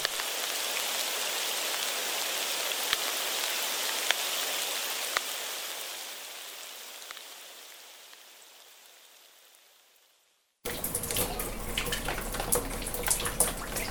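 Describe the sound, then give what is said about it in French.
Dense rain pattering onto ponds, a steady hiss with occasional sharper drop splashes, gradually fading away before a short burst of splashing rain at the end. “et prendre conscience que l'eau qui tombe du ciel et qui comme ça claquette sur euh, les, les étangs et qu'il y a de la vie.”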